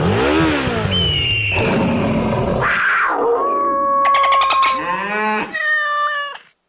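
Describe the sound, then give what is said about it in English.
A voice imitates a motorcycle engine as a radio sound effect, revving in whiny, rising and falling pitch sweeps that sound almost cat-like, loud for about six seconds before cutting off. “It's a primal, wild freedom, a feeling that would be impossible to recreate on the radio. Until now. Hit it, sound effects guy!”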